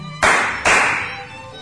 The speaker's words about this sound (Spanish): ambos aplauden para llamar la atención de la familia.